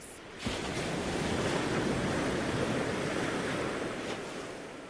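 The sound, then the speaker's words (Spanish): Ocean waves surge in a steady, dense, loud roar of surf, with a gusty wind rushing over the microphone; a sharp onset near the start, then continuous wash throughout. “Atravesaron mares tranquilos y olas altas como montañas.”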